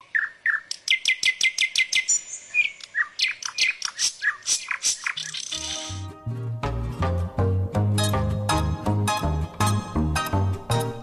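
Birds sing in a quick run of bright, repeated chirps and trills, clear; after a few seconds a steady, rhythmic musical backing comes in beneath the birdsong.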